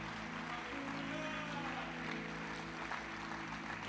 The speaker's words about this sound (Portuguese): Você pode aplaudir isso bem forte mais uma vez?